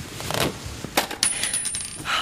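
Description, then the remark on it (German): A small button drops onto a hard tiled floor in a taxidermy workroom, giving a bright tick followed by a few quick, light bounces and rattles that fade out. No one speaks. “Ihr Knopf.”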